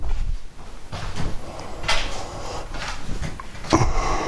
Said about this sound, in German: So, dann wollen wir mal zumachen. Genau. Ist ja auch genug gelüftet, man muss ja auch nicht übertreiben.